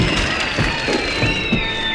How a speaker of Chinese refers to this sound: 哇，今天呢，两位小朋友呢，总共答对了我们的两题，所以呢，得到了我们的海兔奖，掌声鼓励。